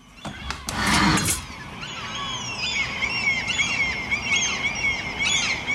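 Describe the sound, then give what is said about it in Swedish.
A loud burst of harsh gull cries opens, then softer, wavering calls continue over a steady outdoor hum, with several birds overlapping; breeding-season gulls outside a bedroom window at 6:15 in the morning. “Det är hemskt, det här är ju då fiskmåsarnas häckningsperiod nu.”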